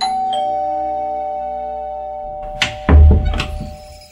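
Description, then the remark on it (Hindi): A doorbell chimes once with a sustained, ringing tone that slowly decays as a visiting friend arrives at the door, followed by a few dull thumps and knocks near the end, like a door being handled. “उसने अपनी एक फ्रेंड को फोन करके बुलाया रात को उसके घर रुकने के लिए और थोड़ी देर बाद ही डोरबेल बजी”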